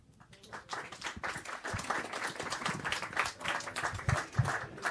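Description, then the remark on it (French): Audience applause at a live jazz concert at the Duc des Lombards, for English trumpeter Quentin Collins: a dense crackle of many hands clapping that swells in over the first second and holds steady and lively to the end, with no talking over it. “Et nous sommes de retour donc toujours en direct euh, du Duc des Lombards pour applaudir l'un des grands noms euh, du jazz anglais ces temps-ci, euh, le trompettiste Quentin Collins”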